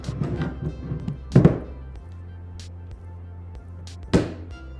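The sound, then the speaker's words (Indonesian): A magnetic battery pack is stuck onto the back of an iPhone to charge it, snapping on with a sharp thunk, followed later by a second similar click, amid soft handling rustle and a low steady hum. “coba ya kita coba wow kita coba tempelkan di belakang iPhone”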